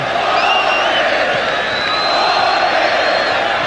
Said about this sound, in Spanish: Gritos de ola por los hinchas de deporte Cristal.